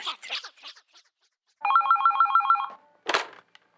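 A telephone rings during the radio show Radioresepsjonen on P3, with a rapid, warbling electronic trill lasting about a second, preceded by faint voices and followed by a short burst of noise like a handset being picked up.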